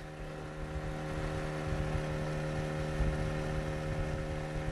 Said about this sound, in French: Elle file, claire, sous le bateau de Philippe.